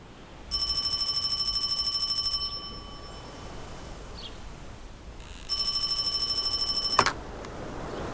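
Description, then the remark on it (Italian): A telephone rings twice, each ring a bright, metallic, rapidly trilling bell lasting about two seconds, with a pause of quiet between the rings and no talking. “Certe chiamate lo senti da subito che sono diverse dalle altre. Le riconosci dal trillo, che alla fine è un trillo normalissimo, ma in realtà sembra portare già dentro il colore delle sue notizie.”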